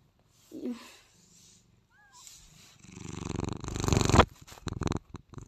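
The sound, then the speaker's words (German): A cat purrs, a steady rumbling that swells louder toward the end, with a brief chirpy meow-like sound early on. “Müsst jetzt einfach nur dieses Schnurren und entspannen.”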